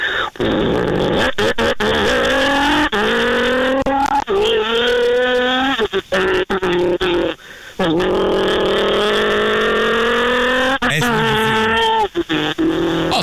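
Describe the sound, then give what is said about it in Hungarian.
A voice imitates a revving sports car engine, pitch climbing and dropping through gear shifts, loud, with a brief pause midway before the revving resumes. “Jó, még egy kis terrari autót hallgassuk, még egyszer, azt nagyon szerették a hallgatók.”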